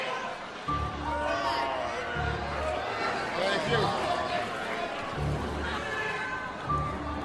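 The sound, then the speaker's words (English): An audience murmuring and talking over one another, a steady, restless hubbub throughout, with one voice briefly speaking and dull low thumps recurring underneath. “Everybody settle down. This is a feisty crowd.”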